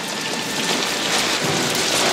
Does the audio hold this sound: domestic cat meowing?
no